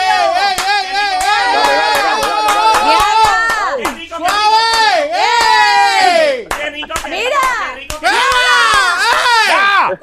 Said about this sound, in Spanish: Mira, papi, me aplauden ah. por ti. Mira, me aplauden.